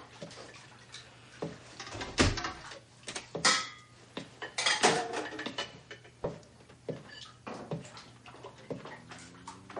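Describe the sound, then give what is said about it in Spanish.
Dishes being washed by a young man at a sink in his parents' house: plates and cutlery clink and clatter irregularly over running, splashing water, with a low steady hum underneath and no voices. “Más tarde, el joven está fregando los platos en casa de sus padres cuando aparece su padre.”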